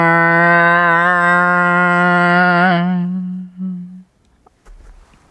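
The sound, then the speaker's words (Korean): A single voice imitates a motorcycle engine with a loud, steady buzzing drone held for about four seconds, wavering briefly near the end before trailing off into quiet. “그러면 잠깐만 오토바이 소리.”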